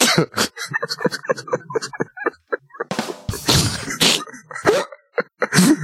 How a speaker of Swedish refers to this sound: Det lät, som att, det lät som att man välte några burkar. Typ.